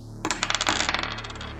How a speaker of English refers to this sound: Okay, I got a 9 on the dice, making a 12.